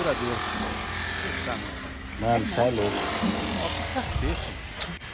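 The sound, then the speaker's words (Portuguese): An electric drill whines steadily for the whole stretch, a loud continuous buzzing hum, while a man speaks briefly over it. “Furadeira, inferno.”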